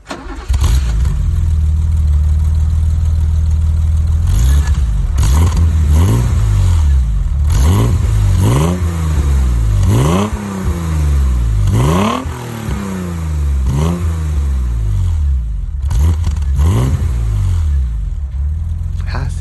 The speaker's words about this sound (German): Sehr schön, sehr schön. Ne? Und jetzt sage ich nochmal das, was wir eigentlich in Teil 1 schon gesagt haben. Wir fahren heute den BMW 333i äh, der Baureihe E30, ein Sondermodell.